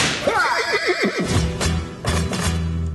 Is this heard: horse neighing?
yes